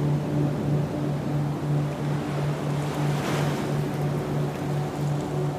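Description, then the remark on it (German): Soft ocean surf washes steadily on a sandy coast under a gentle, continuous breeze, with a low hum running beneath. No voices, just a calm, even wash of water and air throughout. “Hörst du den leisen Wind, der dich wie ein schützender Hauch umhüllt und dem Meer seine Bewegung gibt?”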